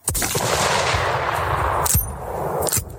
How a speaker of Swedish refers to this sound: Den här gången vill jag inte ha vår vanliga Emmet Garant som säger pling, utan jag vill ha en så här, jag vill ha en så här fin, nej inte en fin, jag vill ha en så här ett usel österrikiskt repetergevär som gör det här klick klick liksom.